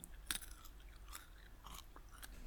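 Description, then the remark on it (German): Crunchy chewing of honey-and-salt peanuts from a cashew and peanut mix bought at Lidl, with several sharp, crackling bites at irregular intervals over a low, steady rumble, fairly quiet overall and with no talking. “ich meine, beim Discounter und habe mir Honig- und Salz-Erdnüsse gekauft.”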